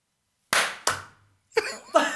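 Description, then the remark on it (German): Four sharp hand claps keeping time to a beat ring out after a moment of silence: two in quick succession, a short pause, then two more, each loud with a brief, fading tail. “Ja, äh, ich klatsche nochmal, oder?”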